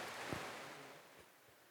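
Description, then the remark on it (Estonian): Heavy rain pattering in a steady, dense hiss, fairly soft and even throughout, with a couple of dull low thumps in the background and no one speaking. “et, äh, et vihm on hakanud päris kõvasti sabistama”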